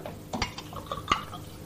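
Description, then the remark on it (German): A refrigerator is opened to reveal the new Dortmunder Blumenbier, a non-alcoholic beer, and bottles clink together: a handful of sharp, ringing glassy knocks in an irregular cluster over a steady low hum, with no one speaking. “Er öffnet den Kühlschrank und sieht dort das neue Dortmunder Blumenbier stehen.”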